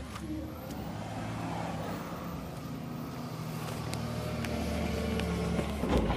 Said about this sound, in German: dann kommt Jochen Meindl mit seinem Caddy angefahren